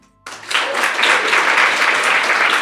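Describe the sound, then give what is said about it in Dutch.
An audience bursts into applause as a guest is introduced, a dense, steady patter of many hands clapping that starts abruptly after a brief quiet moment and holds loud and even throughout. “Word je wel eens met applaus ontvangen?”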